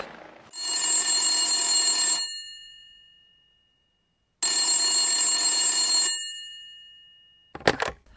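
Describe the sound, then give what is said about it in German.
A telephone bell rings twice in long, bright, buzzing bursts with a pause between, loud, followed by a short clatter as the ringing stops. “Warum rufst du an, hm?”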